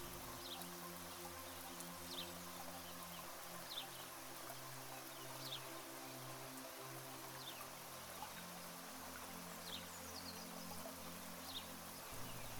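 Gentle rain falling outside patters steadily in a soft, continuous hiss on a morning at a retreat, with faint bird chirps from a courtyard now and then and a low background hum underneath.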